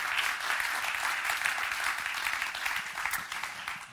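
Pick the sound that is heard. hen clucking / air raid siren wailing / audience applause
audience applause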